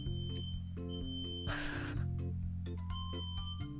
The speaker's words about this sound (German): Gott, ist Feueralarm?